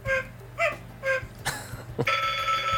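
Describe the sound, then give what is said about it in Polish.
A phone plays an electronic cuckoo alarm, one of its alarm tones being demonstrated, a few short tinny calls repeating about every half second, then a longer buzzy tone takes over, with a low hum underneath. “No ta kukułka jest wątpliwej jakości, tak to się zgadza.”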